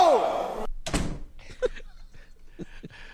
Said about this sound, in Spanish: Eh, abrió la puerta. Abre, abre, abre la puerta. Espérate, abre la puerta.